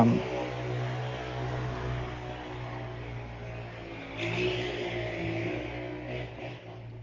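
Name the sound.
motorcycle passing by loudly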